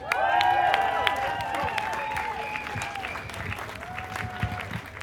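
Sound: audience applause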